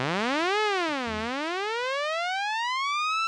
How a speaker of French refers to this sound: Le térémine, si vous vous souvenez, qui fait un bruit qui mm. semble venu de l'espace.